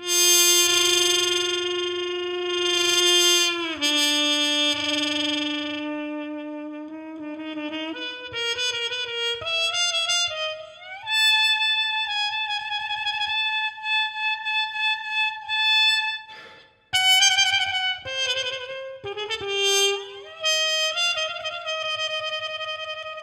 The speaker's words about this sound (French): là, c'était la Wheezy. Exactement, la Wheezy. Donc c'est une sorte de sourdine harmone.